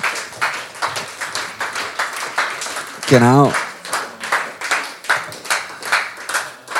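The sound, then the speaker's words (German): An audience claps steadily throughout to welcome a guest, with a brief wavering whoop or whistle rising above it partway through, and a voice speaks briefly over the applause. “Tun wir doch mit einem grossen Applaus begrüßen bei uns”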